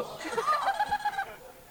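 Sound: goose honking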